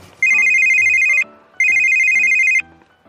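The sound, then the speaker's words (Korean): A mobile phone ringtone for an incoming call sounds twice in clear, loud bursts of about a second each, a bright electronic trilling tone with a short gap between rings, with no talking. “전화 왔다.”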